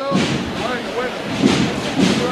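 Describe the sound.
The cymbal crashes together with booming bass drum beats of maestro Tejera's marching band as a procession float is lifted, three loud strikes spaced unevenly, ringing under a man talking over the music.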